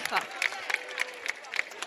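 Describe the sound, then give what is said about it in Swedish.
An audience applauds to thank a guest researcher for coming with her research: a dense wash of clapping with a steady rhythmic pulse of sharper claps roughly three times per second, at moderate volume throughout. “Applåd återigen. Stor applåd.”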